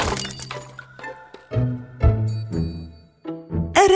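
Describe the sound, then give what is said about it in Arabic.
A hanging ceramic cooking pot, kicked, falls with flying grains of rice, crashes to the floor and shatters, with a burst of breaking pieces followed by several ringing clatters and clinks as fragments settle, loud with no talking. “ولكن الذي حصل انه تحمس وبرجله ركل ركل القدر المعلق وبحبات الارز المتطايره لم يلحق فقد سقط القدر على الارض وانكسر”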